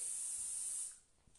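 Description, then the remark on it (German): A steady, bright hiss of an aerosol deodorant spray runs for nearly a second, then cuts off, leaving faint room noise. “ich habe hier so ein Deo, Sprühdeo von niemandem.”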